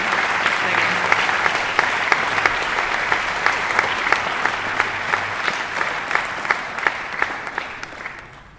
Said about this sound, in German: Ich bitte euch alle um einen kleinen Zwischenapplaus.